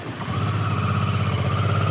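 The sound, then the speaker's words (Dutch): A motorcycle engine rumbles steadily as it rides away in Bunschoten-Spakenburg, Netherlands, a low throbbing drone with a faint higher whine, holding a constant loudness throughout with no voices. “Terwijl de motor wegrijdt, kunnen wij meekijken?”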